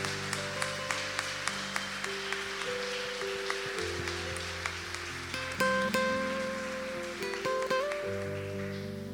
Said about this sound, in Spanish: Dele un fuerte aplauso a esta palabra.